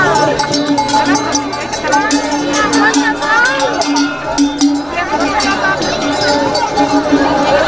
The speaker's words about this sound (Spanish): Bueno, esto que oyes son las mil ovejas merinas y cien cabras retintas que han cruzado Madrid este domingo para celebrar la vigésimo octava edición de la fiesta de la Trashumancia, una fiesta que conmemora la ley que protege las vías pecuarias